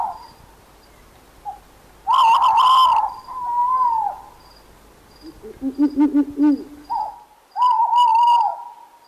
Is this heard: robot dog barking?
no